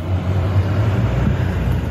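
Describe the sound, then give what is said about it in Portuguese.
A car engine rumbles, a steady low drone with a broad road-noise hiss that holds for about two seconds as the car accelerates across a street at daybreak. No voices. “Um carro atravessou a rua a acelerar.”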